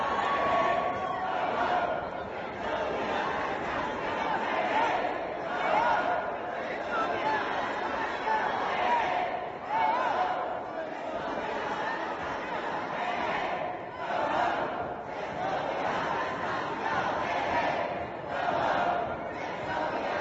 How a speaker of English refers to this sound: you leave a bunch of determined activists things to make noise with, and they will use them. Um, so there were some folding tables for like displays and whatever. And the next thing you know, those things were being banged on.